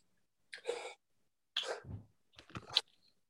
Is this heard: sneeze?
yes